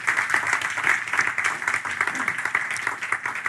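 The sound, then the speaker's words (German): Sustained applause from an audience at a sermon service welcoming first-time guests, a dense wash of many hands clapping steadily at a fairly loud, even level for several seconds with no voices standing out. “Ich dürfte mal einen Applaus geben für die Gäste.”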